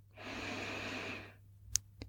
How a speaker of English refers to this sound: We'll begin, as always, by focusing on our breath. Breathing in through our nose